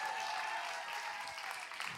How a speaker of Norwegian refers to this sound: Det var mye dårligere applaus nå enn på den forrige. Kan jeg få en kjempeapplaus på gjengen som er her foran?